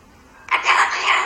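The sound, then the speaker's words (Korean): A sulphur-crested cockatoo croaks out a raspy, hoarse greeting, "hello" in Korean, in a single short burst of harsh, gravelly mimicked speech, fairly loud, after a moment of quiet. “지금 얘는 유황 앵무라고요.”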